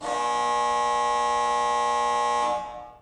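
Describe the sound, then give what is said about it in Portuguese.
A basketball end-of-game buzzer blares in one long, loud, harsh tone for about two and a half seconds, rich in buzzy harmonics, then cuts off with a brief fading tail. “Fim de jogo, não tem prorrogação, mais um episódio do podcast do Layup que se encerra.”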